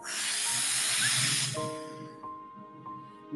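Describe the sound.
A single long, forceful puff of breath blowing out all the candles on a cake in one go gives a loud airy hiss for about a second and a half, then fades into a few bright, sustained chime-like tones.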